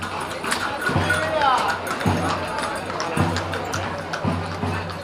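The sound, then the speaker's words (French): Slow, evenly spaced hoof clops of horses and horse-drawn carriages moving in a romeria procession, a patron saint festival, through the town of Moguer, ridden by women in flamenco dresses and men in Andalusian costume, steady, set against a continuous wash of crowd chatter and street noise. “À cheval ou en calèche, les femmes, souvent en robe de flamenco, et les hommes en costume andalou défilent en cortège dans la ville.”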